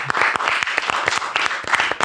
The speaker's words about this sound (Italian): Ah, applauso.